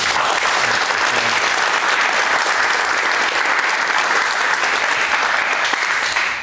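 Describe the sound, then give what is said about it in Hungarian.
Loud, sustained applause from an enthusiastic studio audience as a guest is welcomed, a dense steady wash of many hands clapping that holds at full strength for several seconds without pause. “Te ilyen lelkes közönség két hónapja nem volt.”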